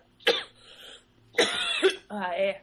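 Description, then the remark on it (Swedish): Two or three sharp coughs in quick succession, each a harsh burst with a raspy tail, the last one sounding partly voiced, like a throaty hack. “Att du börjar hosta nu.”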